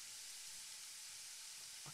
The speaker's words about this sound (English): So I've got some backing background effects. Can you hear those? Yeah, I can hear the sizzle.